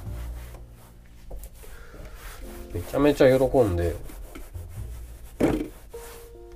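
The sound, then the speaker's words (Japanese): A cloth wipes across a table in soft, repeated rubbing swishes, steady and fairly quiet, while a person talks briefly over the middle and near the end. “あすいません今台拭いてます”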